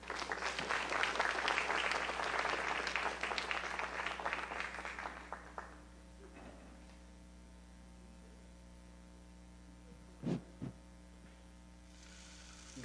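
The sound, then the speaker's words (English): A crowd applauds warmly for several seconds to welcome a band, the clapping dense and broad before tapering off into a steady electrical hum, with a couple of brief thumps near the end. “So help me welcome … at this point.”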